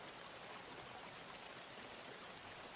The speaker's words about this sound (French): Euh, il n'y a pas de bruit en soi par le son de la pluie euh, qui tombe euh, sans discontinuer.